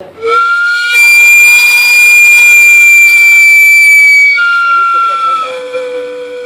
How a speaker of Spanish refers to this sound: Y este sonido fantástico del carrito de los camotes, ¿no? Este camote con dulce y los plátanos riquísimos, con crema, sabrosísimos.